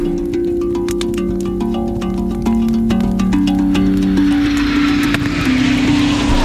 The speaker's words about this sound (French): d'un coup on entend plein de bruit dans le ciel et on regarde par la fenêtre et on voit en fait des gros avions, genre euh, des gros avions cargo ou je sais pas enfin des gros avions et qui volent par deux ou trois.